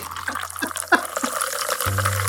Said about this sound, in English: Then pour three ounces of tonic. So bubbly.